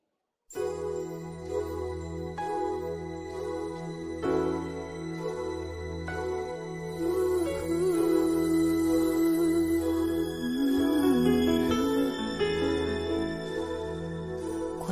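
A pop song's instrumental opening plays without vocals: chiming, bell-like keyboard notes ring over a steady bass pulse, with the arrangement swelling and growing fuller midway through at a consistent, close level.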